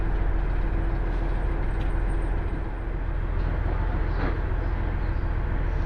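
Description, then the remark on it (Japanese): A steady, dense rumble of a local train bound for Odate on the JR Hanawa Line idling at Morioka station before its 12:37 departure, with a constant low drone and faint mechanical hiss, occasional soft clanks; no one speaks. “お待たせいたしました JR 花輪線直通大武家安比高原松花輪方面普通列車の大館行きですまもなく発車いたします”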